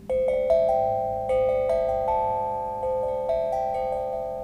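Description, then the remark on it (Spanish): An Omnidrum metal percussion instrument, which cannot be tuned, plays a gentle run of struck, bell-like notes that ring on and overlap, clear, with no voices. “Obviamente el Omnidrum, como no se puede afinar, eh, depende de que la fabricación sea impecable.”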